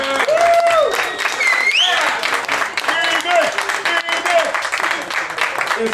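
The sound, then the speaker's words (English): A live audience at the venue Phoenix Landing applauds the venue steadily for about six seconds, dense loud clapping with high whoops and cheering voices rising over it. “Please clap it up for Phoenix Landing one time.”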